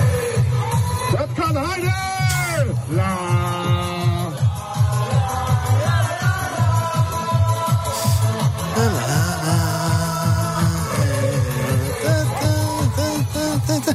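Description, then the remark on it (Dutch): A lively street crowd of people dancing in Amsterdam's Van Bouwstraat at an après-ski style party sings and shouts together over a thumping party beat with steady bass, voices rising in loud, continuous chant-like singing and cheering. “Ja, dat was een soort après-ski feestje in de Van Bouwstraat.”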